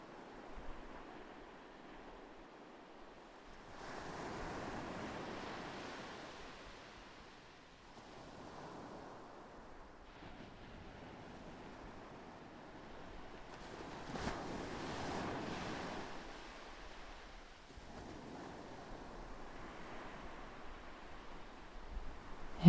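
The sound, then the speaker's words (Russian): Ocean waves wash onto the shore in slow, repeating surges, swelling and receding every few seconds, with a steady wind-like hiss between them and no voices. “этой приятной летней ночи вы с собакой наслаждаетесь лечебным морским воздухом, гуляя по лесной тропинке вдоль моря.”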